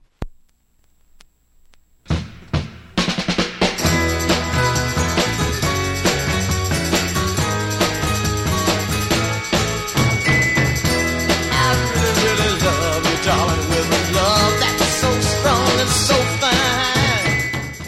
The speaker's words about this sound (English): Well, this record was released as a limited edition 45 by a Toronto based garage band